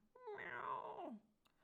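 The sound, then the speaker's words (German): A person imitates a cat's meow while acting out a cat in a yoga pose on all fours: one drawn-out, whiny note about a second long that rises and then slides down, fairly loud, followed by a faint click. “Dabei könnt ihr schnurren und auch miauen.”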